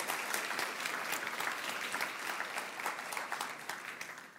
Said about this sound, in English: Why don't we put our hands together for Wollongong who are tuning in?